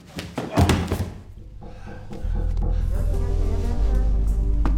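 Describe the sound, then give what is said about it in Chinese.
A single heavy, dull punch lands with a sharp thud early on as a man angrily punches another man in a film scene, followed by a low, sustained musical drone that swells and holds steady to the end. “他本来是很克制的，可是男主一而再再而三的挑衅，激动之下一拳打了过去。”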